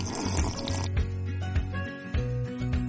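Water pours steadily into a glass, a close, continuous splashing gurgle whose pitch rises as the glass fills, with a brief pause and a few drips near the end.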